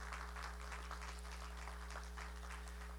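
An audience claps steadily for a few seconds, a dense, even patter of many hands giving a big round of applause for a group called warriors who stood in the gap, with a constant low electrical hum underneath and no voices.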